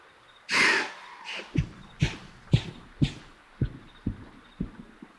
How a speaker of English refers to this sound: an alarmed white tailed deer, snorting and then bounding away into the darkness.